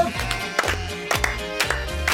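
Steady hand claps from someone clapping along in a radio studio keep time over upbeat music, sharp bright smacks landing on the beat about twice a second, with sustained instruments carrying the melody underneath.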